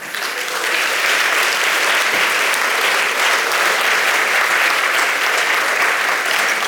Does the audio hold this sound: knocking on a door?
no